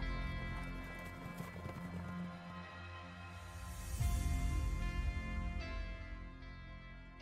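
Horses ridden by Kay Khosrow and Farangis gallop day and night, pursued by Afrasiyab with the great army of Turan, in a steady, dense clatter of hooves, with a loud surge partway through and a whinny rising above the pounding.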